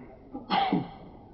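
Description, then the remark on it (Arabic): A single sharp sneeze bursts out after a brief intake of breath, fairly loud, then fades quickly with no talking. “رحمك الله”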